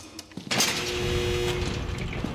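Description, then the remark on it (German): A door opens with a sudden rushing whoosh, then a steady, fairly loud hiss with a faint mechanical hum, like an automatic sliding door gliding open. “Türen!”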